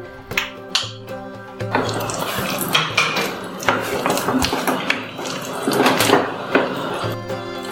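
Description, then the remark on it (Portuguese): Potatoes being mashed with a potato masher, left a little chunky: several seconds of steady, rhythmic squishing and scraping with light metallic clinks against the bowl, with soft music playing at the start and end. “porque a gente tem amassador de batata, então é até mais simples.”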